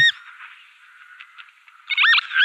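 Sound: northern lapwing call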